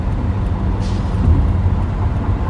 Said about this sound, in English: We just cut over three lanes of traffic in front of a semi, but we're good.